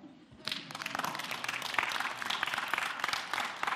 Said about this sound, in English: And yeah, you can clap, that's allowed.